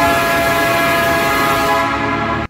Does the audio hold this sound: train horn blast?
yes